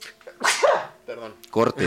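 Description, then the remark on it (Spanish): One sharp, loud sneeze bursts out, followed by a brief laugh and a few quick spoken words from the same person. “digo salud.”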